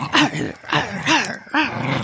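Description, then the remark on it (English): A small dog growls in four quick, rough bursts, each rising and falling in pitch, loud with brief gaps between them and no talking. “horrible growling noises, and I was terrified.”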